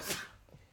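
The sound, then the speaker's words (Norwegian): A single short sneeze, a sharp breathy burst that fades quickly, heard fairly softly with no talking around it. “Prosit. Jo, takk.”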